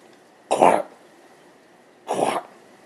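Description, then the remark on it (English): A dog gives two thick, wet hacking coughs, about a second and a half apart, fairly loud against a quiet background with no talking. The dog lurches forward, bracing its legs and struggling for air between coughs. “lurched forward and started hacking deeply, bracing her legs out to support her weight as she struggled to find air between the thick, wet coughs.”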